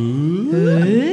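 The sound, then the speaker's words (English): A voice imitates a comic erection sound, a single loud sliding whoop that climbs steadily in pitch for about a second, with no other talking. “That's the sound of a penis getting erect.”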